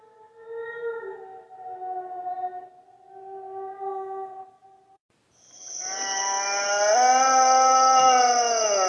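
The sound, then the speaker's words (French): An eerie, inhuman howl: first a wavering, mournful tone, then after a short gap a louder, harsher drawn-out cry rich in overtones that rises slightly and holds strongly to the end. “et ce hurlement le fit sursauter.”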